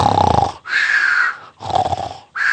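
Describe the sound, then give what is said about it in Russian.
A voice imitates loud snoring: two full cycles of a rumbling, throaty snore followed by a breathy exhale, in a steady, even rhythm with no talking. “Только лег, и опять этот храп.”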